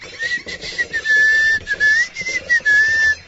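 A person walking calmly whistles a light, wandering tune in short connected phrases, clear, with a soft rustling background and no talking.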